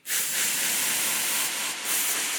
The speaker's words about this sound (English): I sprayed a little air freshener